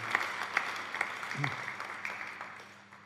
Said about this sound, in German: Ein Applaus für, die, für ihn.